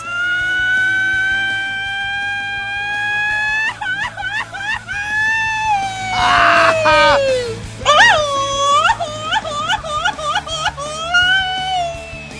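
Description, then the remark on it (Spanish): A man lets out a long, loud, high-pitched yell that swoops and warbles, rising and falling in pitch with quick trills near the end. It's sustained, with a faint background hum. “¿Alguien grita mejor que este cuate?”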